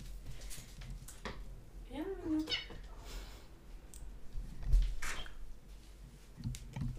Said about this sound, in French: Je vais juste ouvrir parce qu'il y a un chat qui aime venir chez moi. Donc voilà, vous êtes au courant.